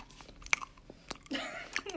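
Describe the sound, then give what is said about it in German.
Wet lip smacking and chewing, with several sharp clicky smacks spaced irregularly, followed by a brief murmur of a voice near the end. “hörst du bitte auf zu schmatzen?”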